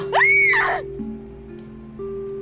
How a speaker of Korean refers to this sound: 일단 그녀는 어, 문을 열고 밖으로 나가야 한다고 생각했지만 몸이 마치 가위에 눌린 것처럼 전혀 움직이지 않았고요. 결국 그녀는 비명을 지릅니다.